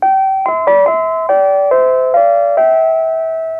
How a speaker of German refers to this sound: sind wir schon wieder unterbrochen. Was ist jetzt los? Jetzt klingelt die Tür. Das war nicht geplant.